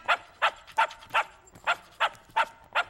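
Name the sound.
dog barking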